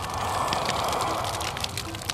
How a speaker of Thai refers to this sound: จากนั้นก็ยกกระบี่ขึ้นมาเสกร่ายเวทเอายันแผ่นหนึ่งวางเผาบนหม้อไฟ ข้างล่างนั้นพวกเต้าหยินน้อยสองสามคนก็เอายันเผา และกระดาษยันที่ราวนั้นก็จุดไฟเผาด้วย